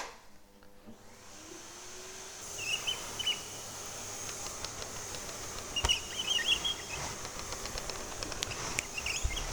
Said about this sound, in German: Doch bevor wir zum Ende der Folge kommen, möchte ich euch noch ein lustiges Beispiel zeigen. Das ist wenn mein Staubsauger über den Teppich gleitet.